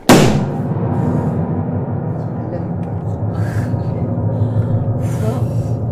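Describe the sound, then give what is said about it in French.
A single loud thump from a hand striking a piano lid, followed by a long, low, humming resonance that rings on for several seconds, with a few faint breathy sounds over it. “Mais si je frappe le couvercle, ça n'abîme pas.”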